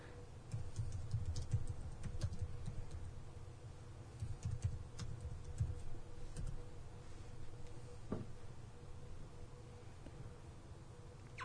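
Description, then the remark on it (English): Soft, irregular clicking of someone typing on a computer keyboard while searching online for a non-alcoholic beer festival, fairly quiet, over a low steady background hum with no one speaking. “Uh, what am I Googling? Na- NA beer, Non alcoholic beer fest.”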